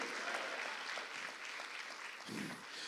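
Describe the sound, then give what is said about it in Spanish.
A crowd of people claps to the Lord steadily for about three seconds, a dense, continuous patter of many hands at an even loudness, with no voices standing out. “Dele palmas al Señor entonces, pues.”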